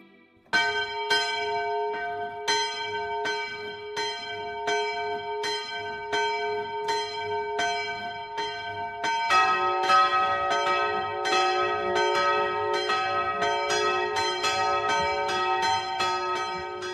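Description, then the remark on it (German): Church bells ring the Sunday noon peal in the village of Mausheim in the Oberpfalz, Bavaria, Germany, in steady repeated strikes, their overlapping tones sustained and resonant; around nine seconds more bells join, making the peal fuller and louder. No voices. “Bayern 1 präsentiert das sonntägliche 12 Uhr läuten auf Bayern 1”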